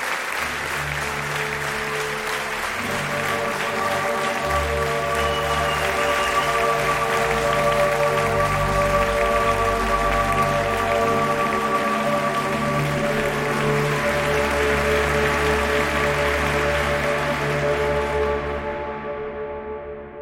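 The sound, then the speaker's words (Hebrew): A theater audience claps steadily for about twenty seconds, a dense, loud, unbroken wash of hand claps that holds its level throughout, with a faint sustained tonal hum beneath, before tapering off slightly. “מן הרגע שחיוכו המוכר והאהוב הופיע בתא הכבוד של התיאטרון, מחאו לכבודו כפיים, הקהל, התזמורת וכל השחקנים.”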